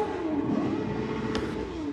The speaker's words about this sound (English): Sorry, that was a loud car.